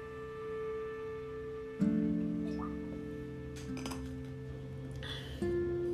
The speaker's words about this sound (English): Hold on, I gotta open up my little water bottle.